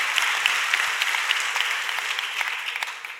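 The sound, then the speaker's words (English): A church audience applauding steadily, dense overlapping claps filling the space at a fairly loud level with no break, no voices standing out. “Come on, let's put our hands together one more time.”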